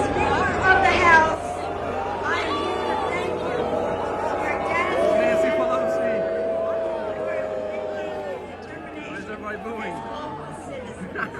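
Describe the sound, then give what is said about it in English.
A large crowd boos a woman on stage loudly and continuously, many voices merging into a sustained, rising-and-falling jeer that swells early on and gradually thins toward the end. “Why is everybody booing?”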